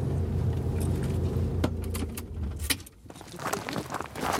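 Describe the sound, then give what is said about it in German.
A car engine idles with a low rumble, then cuts off after the car is parked on a grassy spot in the countryside, followed by sharp clicks and a jangle of keys as a door opens and someone gets out. “Wir können hier parken, dann gehen wir zu Fuß.”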